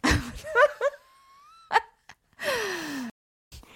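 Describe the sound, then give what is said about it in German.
A person breathes heavily and laboriously through the nose, with a few strained, wheezy gasps and a long whistling exhale, loud, with short pauses between breaths and no talking. “Also, also weißt du, du machst diese Pause, weil du atmen musst zwischendrin, weil du so schwer Luft kriegst, deshalb.”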